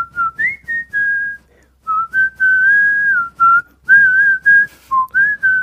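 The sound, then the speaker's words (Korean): A person whistles the melody of a favorite song for others to guess, clear, with a series of sustained and short pitched notes in phrases separated by brief pauses, and no talking. “어, 진짜 깔끔한 휘파람 소리가 네.”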